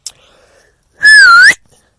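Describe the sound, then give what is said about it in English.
A single loud, piercing whistle lasting about half a second, its pitch wavering slightly before rising at the end, strong against near silence. “Batman does a big ass fucking whistle and Superman grabs his fucking ears and screams.”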